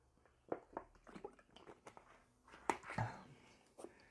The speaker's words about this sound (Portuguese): Só beber uma água aqui que eu quando começo a falar, eu não paro.